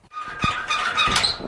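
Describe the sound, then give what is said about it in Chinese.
The door of a Tibetan black pottery craftsman's home creaks open to welcome visitors, at the black pottery production base in Nangqian County, Yushu Tibetan Autonomous Prefecture, with a sustained, wavering squeak lasting over a second, high-pitched and fairly loud, with a couple of soft thumps underneath. “开门迎接我们的，正是此行要拜访的康巴藏区有名的手工艺人”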